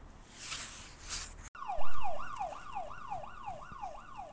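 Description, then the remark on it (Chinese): A police car siren starts up after a moment of hissy noise, then yelps in quick, repeated rising-and-falling sweeps, loud and steady with no voices over it. “Send the police car quick!”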